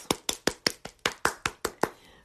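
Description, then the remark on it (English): A short burst of applause from a single pair of hands: about ten sharp, evenly spaced claps at a brisk steady rhythm, then silence. No voices. “Yes, applause.”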